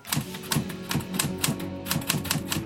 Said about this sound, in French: il prend sa machine à écrire et rédige un pamphlet de 32 pages